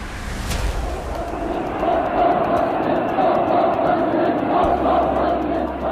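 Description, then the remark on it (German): A large crowd of demonstrators roars and chants outdoors on the Kudamm, a dense, continuous wall of many voices with rising shouts, loud, with a low rumble underneath. “Hier auf dem Kudamm, drei Minuten zu Fuß vom Schimmelfernighaus entfernt, wird konsumiert und demonstriert.”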